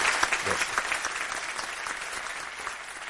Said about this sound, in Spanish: Yo creo que mi coronel se merece un aplauso porque estamos en directo y todo el mundo debe reconocer la labor